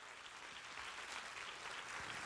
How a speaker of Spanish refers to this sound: Si ese es el aplauso para tu Padre Celestial